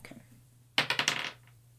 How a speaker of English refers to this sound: 19. What the fuck is with these dice? Yo. I rolled a 7.